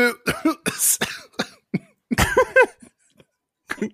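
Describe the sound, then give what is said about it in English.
A string of short, throaty burps comes in quick uneven bursts, some croaky and some with a tonal, wavering pitch. They are fairly loud, with brief pauses between them and no talking. “I, I could tell you were going into it, and then I started burping.”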